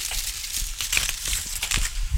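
Ripe, fallen plums from an orchard at an old house in the Lot, France, being trampled underfoot to press them for fermenting: a steady run of soft, wet squelches and crunchy crackles with irregular footfall rhythm, moderately loud and with no voices.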